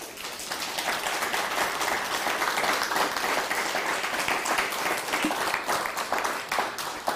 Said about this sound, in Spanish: Pues dale un fuerte aplauso al Eterno.